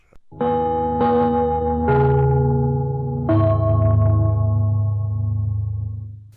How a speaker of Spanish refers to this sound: Atención a la red deportiva de emisoras amigas de Radio Portales al toque de gong, sírvanse conectar.